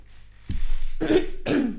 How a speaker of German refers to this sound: Ich muss heute husten, Achtung.